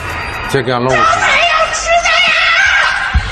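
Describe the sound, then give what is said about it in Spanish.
Many residents of Shanghai shout and scream at once from apartment buildings, echoing between the buildings, with high wavering cries rising over a constant crowded din. “son los gritos que resuenan entre los edificios, los gritos de la auténtica desesperación de los habitantes de Shanghái.”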